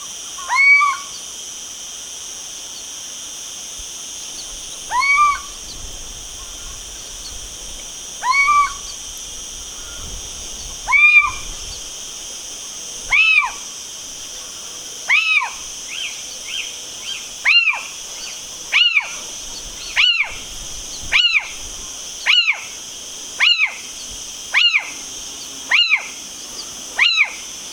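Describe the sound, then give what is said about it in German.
A series of short, rising-and-falling owl calls, at first spaced several seconds apart, then coming faster and more regularly, clear against a steady high-pitched background hum. “Ähm, ja, es klang auf jeden Fall sehr nach Eule.”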